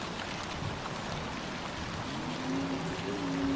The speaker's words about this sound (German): Du merkst, wie es beginnt aufzuziehen und wie es anfängt zu regnen. Und du siehst, wie der Regen anfängt, die Wäsche zu reinigen